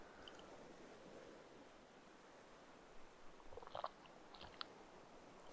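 A few soft slurping sips of tea over quiet background hiss, followed by faint mouth clicks and a sharp little tap at the very end. No one speaks.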